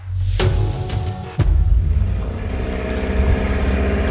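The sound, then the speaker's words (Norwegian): A motorboat engine drones steadily with a low, throbbing hum on a boat trip to a cabin by the Oslofjord in Norway, broken early on by two sharp thuds or knocks before the rumble settles back in. No one speaks. “Vi møtes en båttur unna hytta ved Oslofjorden,”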